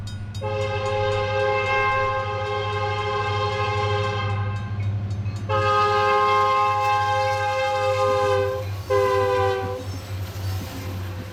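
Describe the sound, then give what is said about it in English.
A freight train rumbles past through the backyard of a motel, its steady low roar underneath three long, loud blasts of a multi-tone horn, the last one shorter. No voices. “Turns out a freight train runs right through the backyard.”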